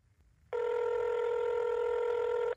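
A telephone rings once with a steady electronic tone lasting about two seconds, then stops abruptly. No one speaks over it.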